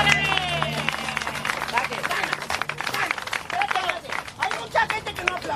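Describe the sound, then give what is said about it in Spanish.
An audience breaks into sustained applause, dense overlapping claps rolling steadily for several seconds, with some voices and cheering mixed into the crowd noise. “¡Fuerte el aplauso, señor!”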